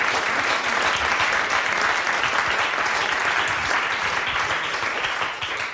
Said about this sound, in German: weil wir hier mit Publikum unterwegs sind, gibt es für jeden Gast bestimmt einen Applaus.